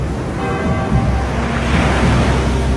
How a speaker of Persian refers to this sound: بلدم شنا کنم ولی دریا پرموند شده